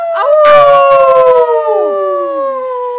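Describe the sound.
Several people howl together in imitation of wolves, overlapping long wavering tones that slowly slide downward and fade. The chorus is loud, with a brief burst of rougher voices near the start.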